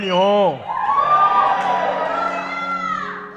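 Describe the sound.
A woman in a church audience lets out a loud, sustained enthusiastic shout that rises and wavers, with a crowd of voices cheering and calling out around her.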